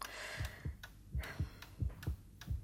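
A child's steady heartbeat heard through a doctor's stethoscope during an examination, with paired low thumps repeating about every half second over a faint hum and rustle, no voices.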